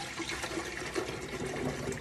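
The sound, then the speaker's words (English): Water pours steadily into a container to make flavored water, a continuous rushing, splashing stream that holds an even loudness for the whole two seconds, with no voices. “Hey besties, come and make my water with me.”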